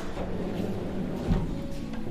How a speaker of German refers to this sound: Ja, und dazu ist unter dem Hund eine Schublade, die ich jetzt mal aufziehe.